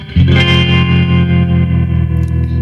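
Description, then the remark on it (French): A loud electric guitar chord struck once and left ringing through a warm, overdriven tube amplifier, sustaining with a slight shimmer and reverb for a few seconds, with no voices. “Avec un ampli à lampe, on est-tu d'accord que le son a une résonance?”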